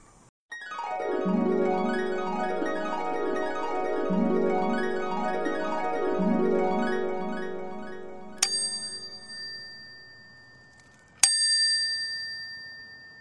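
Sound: bell ringing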